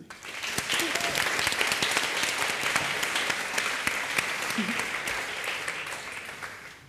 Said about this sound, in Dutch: Geef haar een heel hartelijk applaus.